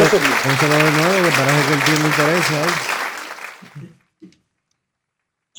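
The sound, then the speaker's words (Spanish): A burst of steady, dense applause for the New York Yankees with a voice holding a long wavering note above it; the clapping thins out and stops after a few seconds, followed by a couple of faint thumps. “Un aplauso para los Yankees de Nueva York.”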